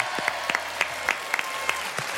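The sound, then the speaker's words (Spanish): Light, scattered hand clapping from a small group in a studio, welcoming a guest who has just entered, with sharp irregular claps over a steady soft patter, moderately quiet and lasting a couple of seconds without voices. “Ah, mira los aplausos.”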